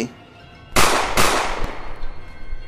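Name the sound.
shotgun blast sound effect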